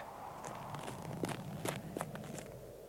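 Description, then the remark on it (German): Quick footsteps of a person running off toward the Spaskaya hurry across a hard surface, a string of sharp, clicking steps at an uneven, brisk pace over a steady low background hum, with no voices. “Danke, ich, ich laufe jetzt zur Spaskaya.”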